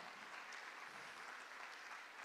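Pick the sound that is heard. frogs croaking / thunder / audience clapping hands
audience clapping hands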